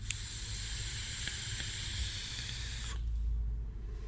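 A steady, soft airy hiss of breath drawn through a vape, with a thin high whistle on top, continuing for about three seconds and then cutting off, leaving only a low hum.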